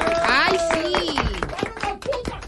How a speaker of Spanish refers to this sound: Oiga el aplauso del auditorio.